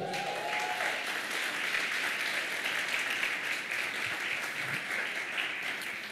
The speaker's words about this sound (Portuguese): Você pode aplaudir Jesus aí?